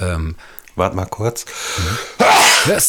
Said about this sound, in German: Ach, Gesundheit. Na, da wird aber einer richtig krank.